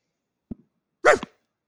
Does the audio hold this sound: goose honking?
no